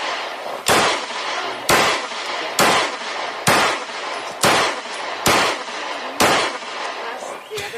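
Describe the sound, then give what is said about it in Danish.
A Luger P08 Parabellum pistol fires about seven sharp, loud shots at a steady pace, roughly one per second, each a bright crack followed by a brief ringing tail. “Det vi hører her, det er en øh, lurer P. Parabellum”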